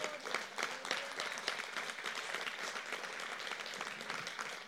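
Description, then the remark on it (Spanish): People clapping steadily as applause for the Lord after a Christian prayer, a dense mass of overlapping hand claps that holds at an even, moderate level for several seconds with no voices standing out. “Pedimos pues un aplauso al Señor.”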